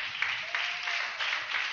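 An audience applauds steadily as praise to the Lord, a dense, even crackle of many hands clapping with slight surges in intensity, no voices standing out above it.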